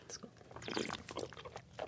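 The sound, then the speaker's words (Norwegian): A quiet sip of wine, swallowed at once, with soft wet mouth sounds, brief and intimate, and faint breathy noise around it. “Jeg bare svelget den med en gang.”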